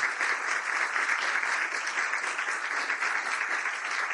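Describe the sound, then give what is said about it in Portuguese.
A crowd applauds steadily to welcome a guest speaker, a dense, even wash of many hands clapping at once that holds at a fairly constant loudness throughout, with no voices standing out. “Eu queria que a gente recebesse ele com um aplauso caloroso, que ele merece.”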